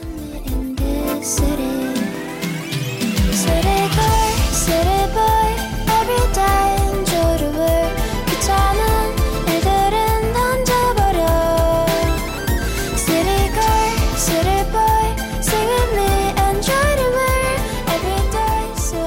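A song plays on a Korean radio program, opening with a brief soft swell before a steady beat and layered melodic instruments kick in, staying loud and continuous throughout with no talking over it.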